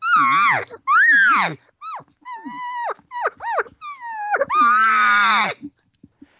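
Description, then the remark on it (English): A person imitates cow elk calls through a call tube: a string of short, high, nasal mews and chirps, then one long, loud, wavering whine. Clear, with no talking. “what's getting it is your is, is, is she showing these other uh, her feeling what she's thinking so you can't just make sounds out there when you're when you're hunting calling elk going through the motions”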